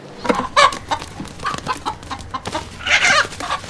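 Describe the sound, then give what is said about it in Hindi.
A rooster clucks repeatedly in quick, uneven bursts, fairly loud, with a louder, harsher squawk near the end and no one speaking; the rooster features in Tungrus, a short documentary from India. “नाम है टुंगरूस राइट तुमने मुझे दिखाई थी उसकी ट्रेलर बहुत मज़ेदार थी बहुत सारे लोगों को मालूम पड़ चुका है कि मुर्गा है”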